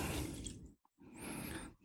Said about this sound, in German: Jetzt kommt eine Tasse Wasser dazu